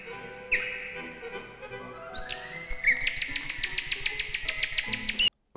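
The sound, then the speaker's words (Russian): A nightingale sings alone: a few clear whistled notes, then a long run of rapid, repeated churring phrases that ends abruptly, with no voices. “Да, но если мы не услышим первых соловьев, мы опоздаем на все лето.”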